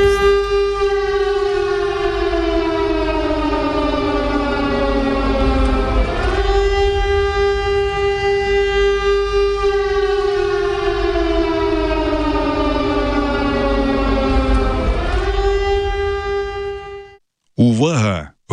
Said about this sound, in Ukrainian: Е, будьте уважні, та зараз ми е, включимо повіщення тривоги в тому числі і перейдемо все-таки до нашого етеру.